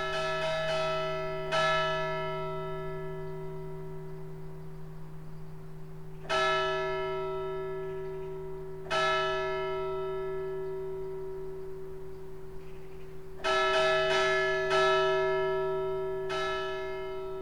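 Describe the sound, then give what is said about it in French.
Malfunctioning village church bells clang at uneven, unpredictable intervals, some strikes bunched together and others spaced far apart, each leaving a long, humming resonance that rings on underneath the next. “Écoute bien les cloches qui font n'importe quoi.”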